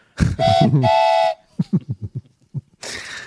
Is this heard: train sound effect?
yes